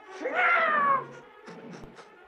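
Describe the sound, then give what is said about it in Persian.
A cat lets out one loud, drawn-out yowl, harsh and wavering, as Thomas the cat jumps on Edgar in a fight, lasting under a second before fading into softer scuffling noises. “توماس روی ادگار پرید”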